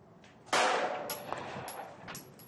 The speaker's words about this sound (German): Und dann feuert sie ruhig und konzentriert Schuss um Schuss mitten ins Ziel.